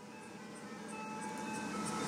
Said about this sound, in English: Ice cream truck again.